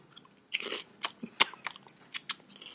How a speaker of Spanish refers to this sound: Ya se, está escuchando tu mascada. la gente se va a enterar que mastico con la boca abierta. Es broma, es broma. No mastico así.